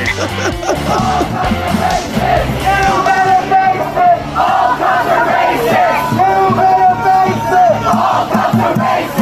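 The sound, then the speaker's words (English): A large crowd of protesters in Charlottesville over the weekend chants and yells in unison, many voices overlapping into a loud, continuous roar with rhythmic shouted cries rising and falling throughout. “Hi, sounds of Charlottesville over the weekend.”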